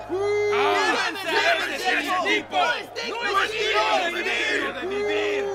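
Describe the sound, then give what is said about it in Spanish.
A large crowd shouts and yells angrily all at once as Paul speaks, a dense, loud wall of overlapping voices rising and falling with raised cries breaking through. “La multitud escuchó hasta que Pablo dijo esta palabra. Entonces todos comenzaron a gritar.”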